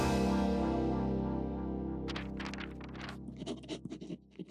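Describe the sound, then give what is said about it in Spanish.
A pencil scratches across paper in short, irregular strokes, fairly crisp, starting partway through over a steady low humming tone that fills the background. “Y aquí literalmente es momento de sacar papel y lápiz para tomar nota.”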